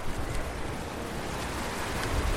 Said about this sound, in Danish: Det er noget, der hedder fosfor, og for at få det væk, så skal vandet over i et nyt kæmpestort kar. Her er i hvert fald smæk på vandet.